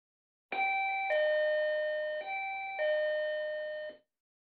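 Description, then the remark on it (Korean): An electronic doorbell at a home's front door chimes in clear two-tone ding-dong pairs, rung early in the morning by an unexpected visitor, ringing twice in succession with sustained tones, fairly loud, with no voices. “아빠가 만든 망고무스 케이크에 12개의 초를 꽂은 후 촛불을 불려는 순간 초인종이 울렸다.”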